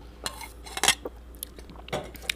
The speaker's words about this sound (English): Hold on. One second. Let me have a sip of beverage.